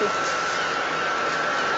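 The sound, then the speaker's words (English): A steady, loud industrial roar from Dungeness power station, near Hastings on the south coast, with steam escaping from holes in the wall: a broad rushing hiss with a faint whine in it, much like a jet engine during takeoff, unbroken throughout. “sound of Dungeness power station.”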